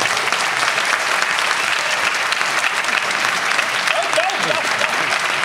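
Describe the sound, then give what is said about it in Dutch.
Sustained audience applause, a standing ovation for six men seated at a table: a dense, steady wash of many hands clapping at even loudness throughout, with a brief voice or cheer rising faintly near the end. “En ik wil heel even een heel groot applaus voor deze zes heren hier aan tafel.”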